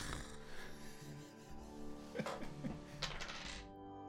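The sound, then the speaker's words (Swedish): A small die is rolled across a hard table, clattering with a few quick hard ticks and taps as it tumbles and settles, over a low steady background hum. “Och jag tänker att slå en tärning.”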